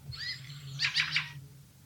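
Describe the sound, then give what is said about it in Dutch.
A bird's short call, made as it flies over a house, repeated as a quick series of three or four bright, high notes, preceded by fainter chirpy whistles, over a low steady hum with no talking. “Ja, dat is het geluid zeg maar, wat ze maken als ze over het huis vliegen.”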